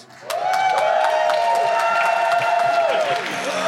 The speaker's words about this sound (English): Oh no, Chris Pratt! Oh no, that wasn't a lot of cheering. I know what that means.